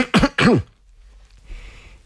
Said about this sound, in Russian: Человек с бледным лицом кивнул головой. Глаза его сверкали. Он откашлялся.